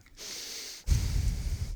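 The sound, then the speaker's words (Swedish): Two heavy breaths straight into a microphone during a soundcheck: an airy, hissing inhale followed by a forceful exhale that blows against the mic with a low, buffeting rumble. No talking. “Äh, ja, andas lite får vi se.”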